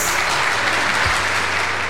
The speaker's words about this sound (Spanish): Estos son los jóvenes que hoy logran culminar una meta importante en su vida académica. Presentamos a los graduandos. Recibámoslos con fuertes aplausos.